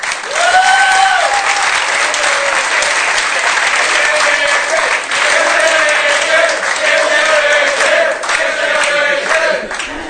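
A large audience applauds loudly and steadily for about ten seconds, a dense wash of clapping with cheers and shouts rising above it.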